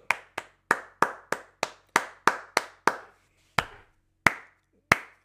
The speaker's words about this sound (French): Par la suite, la clap de golf, c'est le moment qui te donne le goût de te lever et d'applaudir comme ça.